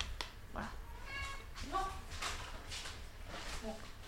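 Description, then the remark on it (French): A cat meows insistently for food, four or five short, rising calls in quick succession, with faint voices in the background. “Tu nous as eu à l'usure, Minou”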